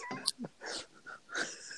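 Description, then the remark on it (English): Several raspy, wheezing breaths in close succession, each with a thin whistling tone riding on the airy rasp, fairly quiet and heard alone without talking. “wheezes like a kid with asthma.”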